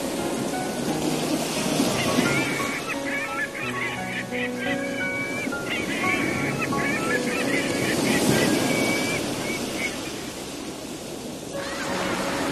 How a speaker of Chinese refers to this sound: 沙滩黄黄的，又长又软，雪白雪白的浪花哗哗的笑着，涌向沙滩。